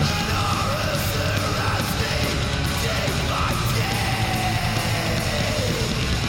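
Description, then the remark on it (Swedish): Loud, dense metal music from a record released by Dying Victims Productions, with harsh screamed vocals over distorted guitars and pounding drums, playing continuously at a steady high volume throughout. “men det här, det här lät pärla.”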